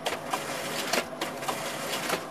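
A photocopier printing: steady mechanical whirring with a quick, regular rhythm of swishing sheet passes, about four per second, at an even, moderate level with no voices.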